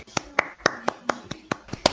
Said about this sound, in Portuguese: Poucas palmas, porque palmas. esse defeito sonoro é caro.